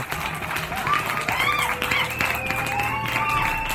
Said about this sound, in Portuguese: Palmas para João Gabriel. Isso mesmo.